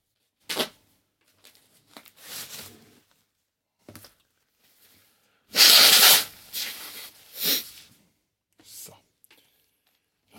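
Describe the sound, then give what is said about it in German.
A forceful nose blow into a paper tissue, surrounded by short bursts of crinkling and crumpling as the tissue is crumpled, with a few quieter rustles and breaths in between. “Taschentuch wird, wie es sich gehört, standesgemäß zerknüllt und beschneuzt auf den Teppich geworfen.”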